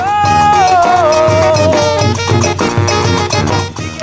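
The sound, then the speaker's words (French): A brass fanfare band plays lively, syncopated afro music, with bright horn melodies over punchy low bass notes and steady percussion, loud throughout. “la fanfare … va vous faire voyager avec des musiques afro totalement décalées”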